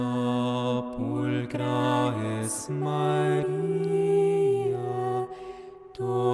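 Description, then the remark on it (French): Slow, sustained music with rich held chords that shift from one note to the next every second or so, playing steadily and fairly loud throughout, with no talking. “Alors, écoutez un peu de musique”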